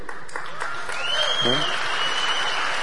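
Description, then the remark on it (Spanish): Steady audience applause welcoming a speaker's wife, married 28 years, a dense wash of many hands clapping at moderate loudness throughout, with a brief voice or cheer rising over it partway through. “Pues tenemos 28 años de casados, ahí entran los aplausos.”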